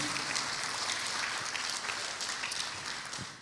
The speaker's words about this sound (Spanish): Dele palmas fuerte a ese Señor y a ese Dios poderosísimo.